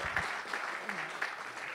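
Audience applause: a dense, steady wash of many hands clapping at once, moderately loud, with a few sharper claps standing out at regular intervals and no one speaking.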